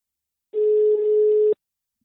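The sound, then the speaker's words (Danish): A single steady telephone ringing tone sounds for about one second as an outgoing call is placed to head coach Martí Fuentes, clear, with a slight click at its end and silence around it. “Jeg tænker i hvert fald, at vi giver Marti et, øh, et kald og lige høre, hvordan og hvorledes.”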